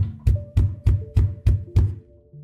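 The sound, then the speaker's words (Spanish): Six firm knocks on a door in a steady, even rhythm, fairly loud, each a dull thud with a quick sharp edge, followed by a brief quiet tail. “Otros golpes sonaron.”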